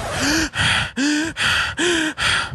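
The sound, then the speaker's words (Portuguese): A person imitates a horse's heavy breathing with six loud, rhythmic breathy huffs in quick succession, some with a voiced rising groan, with no talking. “tá pensando num cavalo respirando que nem um ser humano.”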